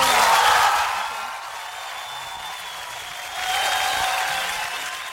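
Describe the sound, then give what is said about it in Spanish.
Loud audience applause after a live unplugged performance, a dense wash of clapping that is strongest at the start, eases slightly in the middle, then swells again before fading. No one speaks over it. “Ay, salieron un poquito fuerte los aplausos.”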